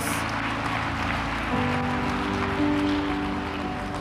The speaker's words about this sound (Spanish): Póngase de pie. Dale un fuerte aplauso a Dios.